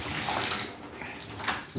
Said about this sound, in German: So, jetzt habe ich noch einmal schön geduscht, schön warm, mich einmal abgebraust, die Haare mit Shampoo gewaschen und es genossen, das warme Wasser über meinen Körper laufen zu lassen.